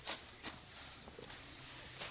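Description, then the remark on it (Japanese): Four crisp, crunchy swishes of a sickle slicing through sedge stalks, spaced irregularly over a couple of seconds, moderately loud against a quiet outdoor background with no talking. The sickle is set low on the stalks and pulled diagonally upward to cut them. “音が違うザクって切れ味の音が違うんですよね”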